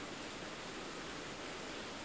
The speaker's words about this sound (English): It's raining here, by the way, that's the background noise.